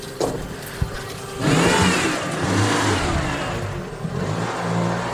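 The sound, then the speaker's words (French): A car driven by a woman pulls in at a former convent, its engine rising into a loud rev after about a second and a half, then settling into a steady mid-pitched rumble with another brief rev near the end. “Là, il y a une voiture qui rentre.”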